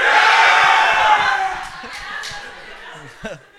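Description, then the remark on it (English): A loud crowd of men in a room roars a shout in unison in answer to being asked if they love their brothers, the broad burst of voices swelling for over a second before fading into scattered cheers and laughter. “Men in the room, do you love your brothers?”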